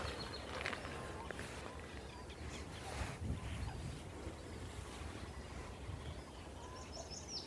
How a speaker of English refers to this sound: You can hear those funny little grebes again.